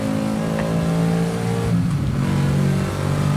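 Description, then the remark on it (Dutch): A race car engine revs loudly and steadily on the Zandvoort circuit, braking for a left-hand corner, its pitch shifting as it downshifts back to second gear, a continuous mechanical roar with no voices. “Nou, je hoort hem ook terugschakelen. Terug naar tweede versnelling.”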